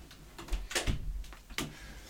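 A cat, Mysko, scratches at a studio door in several short, rasping bursts with a few muffled knocks, fairly quiet, with no voices.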